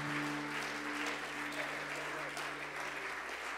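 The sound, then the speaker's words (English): A large audience at Tree of Life Church applauds steadily to welcome a visiting pastor, a dense wash of many hands clapping at once, sustained and fairly loud throughout, with a low steady hum beneath it. “Can we receive him at Tree of Life Church with a great big hand clap?”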